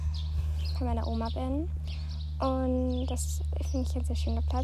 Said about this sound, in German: Das heißt, ihr hört die Vögel auch schon im Hintergrund.